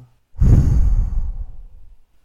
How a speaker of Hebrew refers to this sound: אבל שנייה לפני אני רוצה לבקש ממך רגע לעצור ושתנשמי. ככה ממש נשימה עמוקה לריאות ולשחרר.